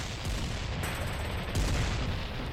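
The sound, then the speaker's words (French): Dense, continuous battle noise on a beach with heavy low rumbling and rapid crackling gunfire, plus brief high whistling streaks of bullets flying in all directions, loud with no voices. “Les balles sifflent dans toutes les directions.”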